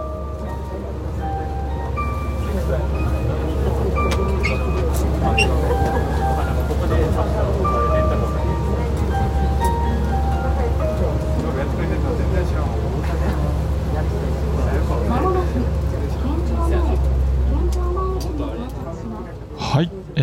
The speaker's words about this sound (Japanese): ユイレールですかね、これは。そうですね。あの、うんうんうん、ユイレール、あの、那覇空港から出てるモノレールなんですけれども、うんうんうん、まあ、いきなりやっぱり感動しましたね。あの、何がっていうと、こう、それぞれの駅ごとにですね、うん、こう、沖縄のメロディーが流れてくるんですよ。